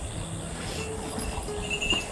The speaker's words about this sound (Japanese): あ、なんかチリチリ鳴ってんなと思ったら自分じゃなくて、後ろの自転車の方でしたね。